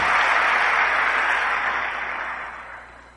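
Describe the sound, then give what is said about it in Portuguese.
An audience applauds to bless fellow church members, in a steady, dense wash of clapping that starts loud and gradually fades over about three seconds, with no voices over it. “Pode sentar, eu vou pedir para a gente aplaudir, abençoar esses amados irmãos.”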